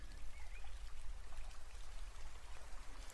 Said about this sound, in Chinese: 嗯，下雨了吗？明明刚刚还是晴天呢。